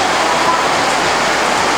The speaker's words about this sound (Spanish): Eh, bendecido aquí con lluvia en Poloros, me dicen. Poloros está lloviendo, señores. Me mandan un videito. Por cierto, lo voy a compartir.